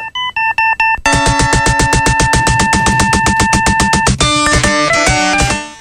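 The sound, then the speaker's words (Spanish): Music whose beat comes from the edge of a mobile phone banged repeatedly against a table: rapid, steady percussive taps under bright electronic melody tones, loud, with no one speaking. “Si lo escucháis, eh, la percusión es eso, eh, un móvil golpeado contra una mesa.”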